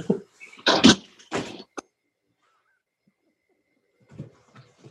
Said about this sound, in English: and he slammed the door behind him.